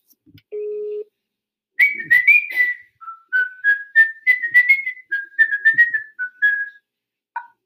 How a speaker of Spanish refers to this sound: Por favor, deja tu mensaje después del tono.